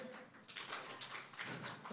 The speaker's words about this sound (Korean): 네. 바로 우리 렘넌트들의 문화가 되어버린 램송 박수인데요.